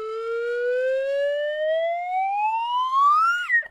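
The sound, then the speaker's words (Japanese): A wave whistle glides steadily upward in pitch for about three seconds, loud, then drops off with a brief wobble at the end. No voices accompany it. “えー、笛は私専用そして、えー、常にですね茎口等々は、えー、念入りに消毒して使用させていただいてます衛生管理衛生管理も完璧でございます、はい、このウェーブホイッスルの音で表現しつつ”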